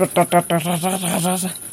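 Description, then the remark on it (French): A frog or toad croaks: a few quick, throaty pulses, then a longer rattling, buzzy run of rapid clicks, fairly loud and with no other sounds around it. “Euh, c'est un son qui, se supporte bien. Oui, c'est pas mélodieux. c'est pas comme les grenouilles rieuses.”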